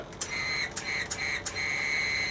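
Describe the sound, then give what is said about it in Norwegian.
A thin, steady high-pitched whistle tone from a frozen whistle blown indoors, with several sharp clicks breaking through it at uneven intervals as it sputters. Fairly quiet, with no voices. “Jeg skulle fløyte her inne, og bare sånn Hva var det da? Det var, bare var bare klikk, klikk, klikk.”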